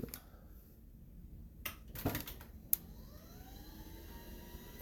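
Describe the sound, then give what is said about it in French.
A quiet motorized standing desk hums steadily, with a few clicks and knocks midway, then its motor whine glides upward in pitch as the desk rises and lowers. No one speaks. “Fait que ça, c'est le bruit de mon bureau qui monte puis qui descend.”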